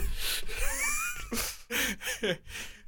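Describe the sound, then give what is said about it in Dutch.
A person sputters and chokes after getting water up the nose while taking a sip, with wheezy snorts and sharp gasping breaths in several rough bursts, fairly loud, with no clear speech. “God, ik water in mijn neus.”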